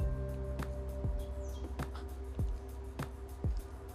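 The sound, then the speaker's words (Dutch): A great spotted woodpecker, a large woodpecker with a red head, pecks at wood in search of food, sending out half a dozen sharp, irregular knocks over a steady low background hum, moderately loud. “Het is dus een grote specht die dat geluid maakt.”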